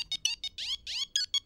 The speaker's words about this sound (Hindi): खैर वो अपनी सपनों की दुनिया में गोते खा ही रहा था कि तभी उसका फोन बजा